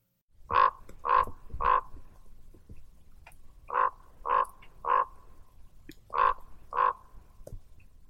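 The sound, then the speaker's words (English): A raven gives eight loud, hoarse croaking calls in three bursts of three, three and two, each a short throaty note with evenly spaced pauses, with no voices. “And then here's the more serious sound, as you'll hear, of a raven.”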